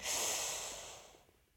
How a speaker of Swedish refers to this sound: Om du, eh, som jag, inte kan det så bara bit upp tänderna. Andas in.